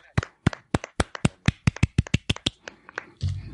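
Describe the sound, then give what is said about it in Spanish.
A quick run of about sixteen sharp hand claps, fairly loud, in a steady brisk rhythm that slows slightly before a brief rustle at the end. No one speaks. “Yo, chicos, eh, creo que nos tenemos que dar un aplauso. De hecho, yo lo voy a dar porque el Real Madrid hoy es ya firme ganador de la liga.”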